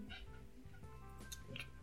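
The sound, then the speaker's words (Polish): A cat gives a few faint, short meows at intervals over a low background hum, quiet, with no one speaking. “Przepraszam, przepraszam, bo tu kot, kot miał czy cicho.”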